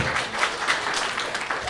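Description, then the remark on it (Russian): A steady wash of audience applause, many hands clapping densely at once with no clear individual claps, holding an even, moderately loud level throughout without voices on top. “Это аплодисменты, по-моему.”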